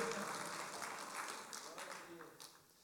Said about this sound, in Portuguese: Aquele que quer deu uma salva de palmas para o Senhor, que esse cão é derrotado, nós temos valor, irmãos.